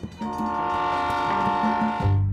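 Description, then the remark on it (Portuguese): A train horn blasts in a sustained, loud chord lasting a couple of seconds, with a deep rumble swelling beneath it near the end, set in the echoing ambience of Estação da Luz railway station in São Paulo, Brazil. “Sua porta de entrada na cidade foi a Estação da Luz, a estação ferroviária mais importante da cidade.”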